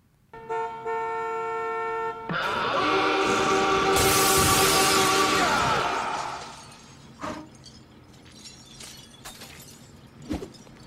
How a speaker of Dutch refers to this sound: Hier komt het geluid. Het rinkelende glas gaat ook maar door.